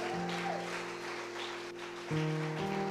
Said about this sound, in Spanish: Démosle un fuerte aplauso a este valiente de Dios. Toma valentía hacerlo.